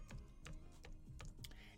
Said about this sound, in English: I'm just typing over here. I'm typing in two different places.